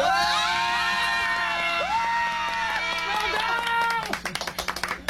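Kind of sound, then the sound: human body sound, person shouting loudly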